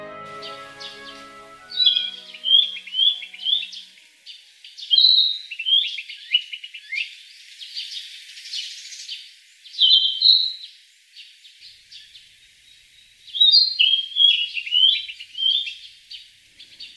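A small songbird, a Narcissus flycatcher, sings bright, varied warbling phrases in several bursts separated by short pauses, clear against a quiet outdoor background, from a row of trees in a feudal lord's garden with a central pond and lawn, surrounded by a forest of large zelkova and chinquapin trees.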